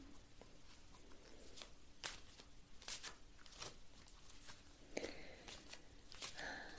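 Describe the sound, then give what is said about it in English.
A deck of cards being shuffled, with soft, irregular papery slaps and riffling rustles over several seconds, fairly quiet, with no one speaking. “So now I shall shuffle them slightly, okay?”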